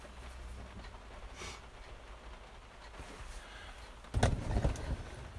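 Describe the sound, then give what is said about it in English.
Steady low engine rumble and road noise fill the back of a moving truck, broken near the end by a short burst of loud rattling bumps and clunks. “We're in the back of a motherfucking truck right now recording this for you.”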